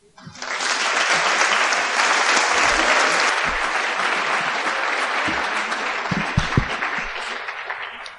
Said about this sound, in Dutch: Graag een kritisch applaus en dat hoeft zelfs niet ingetogen te zijn.